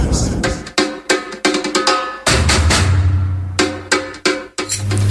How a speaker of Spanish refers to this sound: Y seguimos con más samba.